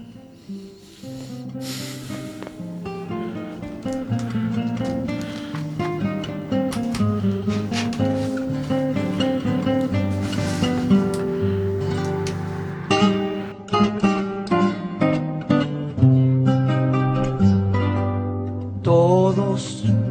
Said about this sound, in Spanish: Este film obtuvo numerosos premios, entre los que destacaron dos Oscars a Mejor Maquillaje y Banda Sonora. Esta última también fue galardonada por los Globos Oro. Escuchamos una de las canciones de la premiada banda sonora.